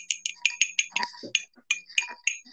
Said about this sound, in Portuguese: E aí a gente fala, e, hoje nós estamos, e hoje nós estamos aqui para um brinde às visões da vida. E aí a gente gira tá a assim, tacinha ó, e faz o barulhinho. Tá. O seu barulho é bonitinho, meu não é.